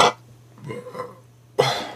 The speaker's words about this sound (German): Wer war das? Da ist schon wieder einer einfach reingekommen und rülpst hier rein. So eine Sau.